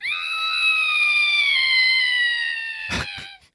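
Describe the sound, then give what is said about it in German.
A voice lets out a long, high, quavering shriek, imitating a ghostly scream. It holds steady for about three seconds, sinks slightly in pitch, then ends in a couple of sharp clicks. “ganz äh, gespenstisch kreischen.”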